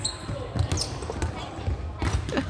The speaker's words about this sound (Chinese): 还有少数的一两个晚上是我会去篮球场，因为我也是我们系上男篮队的球精，那就跟大家分享一下我最喜欢的球鞋在体育场地板上面摩擦的声音。